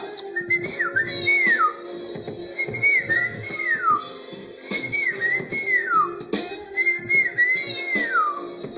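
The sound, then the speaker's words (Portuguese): A person whistles to imitate a little bird, repeating a short warbling phrase four times in a steady rhythm, each rising then sliding down in pitch, over a faint background hum. “O passarinho chegou lá.”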